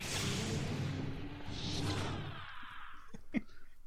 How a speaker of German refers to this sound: Aber Tür, Tür klingt so.